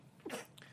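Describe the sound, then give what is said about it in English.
A single quick sneeze, a short sharp burst of breathy noise that fades within a fraction of a second, heard fairly quietly with no talking around it. “Bless you.”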